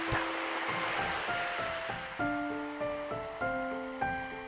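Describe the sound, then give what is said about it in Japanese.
Ocean waves stirred by an autumn wind wash steadily ashore in a continuous broad hiss, carrying a small floating bottle back out to sea, while a gentle melody of sustained tonal notes plays over the surf. “秋風で揺らめく海にそっと瓶を浮かべる波はそれをさらって沖の方へ引き返していく小さな瓶はゆらゆらと波間を漂い”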